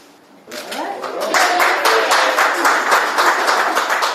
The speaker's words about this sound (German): Ja, daraufhin dann großer Applaus.